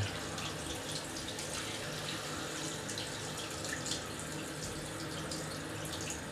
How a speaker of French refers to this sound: J'ai envie de t'embrasser là maintenant, quand l'eau nous tombe dessus.